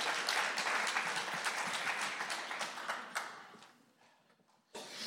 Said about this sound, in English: That was awful. That was awful. That's like you're clapping for some mediocre thing. Let's give it up for the Lord, you guys. Come on.